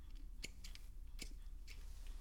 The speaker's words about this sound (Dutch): En dan pak ik mijn schaar en dan snijd ik net onder een knop, een, net onder een knop, bijvoorbeeld bij een stel blaadjes, snijd ik hem af.